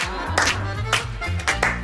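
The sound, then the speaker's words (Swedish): During a Christmas music segment on Mix Megapol radio, several people clap their hands in time with upbeat music, a handful of sharp, fairly loud claps landing on the beat over a steady bass line. “Och så klappar vi med!”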